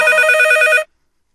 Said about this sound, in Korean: 오, 어, 어, 전화가 오네. 어? 아, 전화기가, 아, 전화기가. 오, 어, 저기 있다.